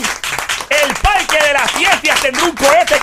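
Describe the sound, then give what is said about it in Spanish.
Steady applause from a crowd, a dense patter of many hands clapping at once, with voices calling and talking loudly over the clapping throughout. “Ese es fuerte el aplauso para el inventivo del orgullo de Bayamón.”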